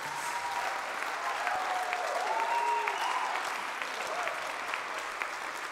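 A crowd applauds steadily for several seconds for the Creative Lab ministry, a dense, even wash of clapping with a few faint voices and a brief cheer rising through it.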